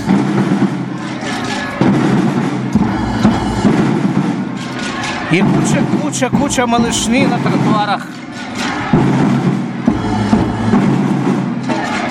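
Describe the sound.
Children beat many different kinds of drums loudly and continuously in a dense, clattering street procession along a roadway cleared of traffic, with a man talking over the steady din of overlapping hits.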